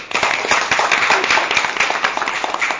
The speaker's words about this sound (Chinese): 我们大家鼓掌欢迎啊！